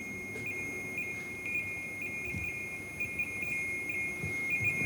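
A steady high-pitched electronic beeping from a device whose light moves around in a circle repeats in a fast, insistent rhythm, like an alarm tone, over a low rumbling background with no voices.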